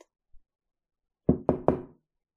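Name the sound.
knocking on a door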